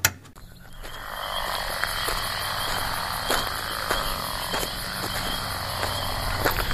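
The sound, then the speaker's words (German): A dense night chorus of fire-bellied toads calling steadily from a neighbour's garden pond, soft repeated notes overlapping with a constant background of chirping insects and occasional sharper clicks. Nobody speaks. “Titel ist Unkenrufe”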